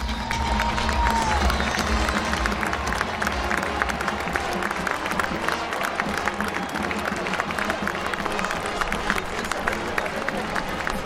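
A large American football stadium crowd supporting the Badgers roars steadily, with dense applause, cheering and a continuous wash of voices filling the space, loud and sustained throughout without any pause.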